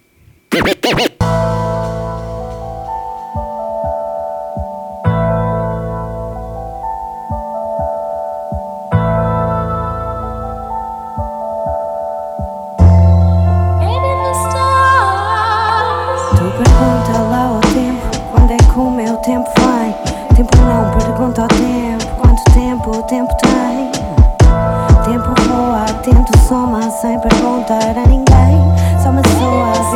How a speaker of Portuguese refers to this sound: Vamos ouvir então essa track.